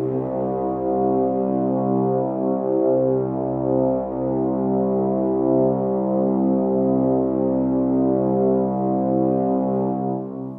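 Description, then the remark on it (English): A bugle horn blows one long, loud, unbroken blast with a rich, brassy tone, holding steady for about ten seconds before cutting off, blown as a call for help and echoing off the adjoining rocks and chasms. No voices accompany it. “I was about to close the window and retire to rest when I heard, truly, a clear ringing cry, penetrative, a cry which was echoed by the adjoining rocks and chasms, this cry being repeated and prolonged and echoed over and over again.”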